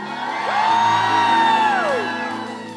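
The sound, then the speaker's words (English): On a count of one, two, three, a crowd lets out one long, loud collective "woo," its voices rising then sliding down in a sustained shout lasting about two seconds over a low steady hum. “So shout your woos for one time and shout it loud.”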